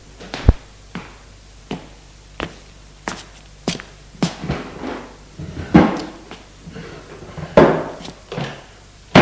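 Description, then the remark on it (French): A desk drawer is handled: a run of sharp wooden knocks and clicks, then louder sliding, scraping rustles as it is pulled open and rummaged through. There is no talking. “Il entre, tout est sombre, va au bureau où se trouvent les tiroirs.”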